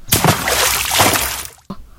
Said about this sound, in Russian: Даже не спрашивайте, что ее впечатлило, но эта женщина в красном пальто, засмотревшись на ворону, споткнулась и случайно уронила свою перчатку прямо в огромную лужу